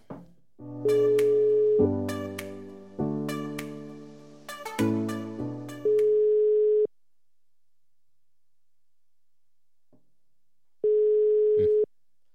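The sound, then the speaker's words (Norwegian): Electronic dialing tones give way to a steady phone ringback tone that sounds, pauses in long silence, then sounds again, with no one picking up. No voices are heard. “Skal vi ringe, og så hører vi hva Guttorm har å melde?”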